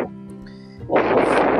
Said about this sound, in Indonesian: lu ngapain ngos-ngosan anjing ngobrol sama gue?